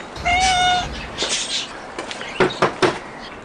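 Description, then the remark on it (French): A cat gives one clear, fairly loud meow at the entrance to a greenhouse in a horticultural garden in Béthune, followed by a few soft clattering knocks like a door or cupboard moving. “Bonjour le chat.”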